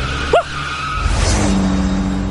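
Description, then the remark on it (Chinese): A police car driven by the cartoon character Labrador Police Chief brakes hard to slow down because of road works ahead: a brief, high tire squeal rises and falls, and a steady low engine rumble carries on afterward. No one speaks. “拉布拉多警长急忙踩了踩刹车，降低车速。”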